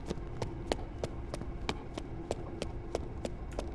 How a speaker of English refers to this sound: The room is eerily quiet and still, and you can hear what sounds like footsteps in a hallway running.